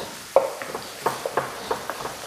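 Onions are stirred in a frying pan, a spoon scraping and clacking in short irregular strokes over a soft, steady background sizzle, with no talking.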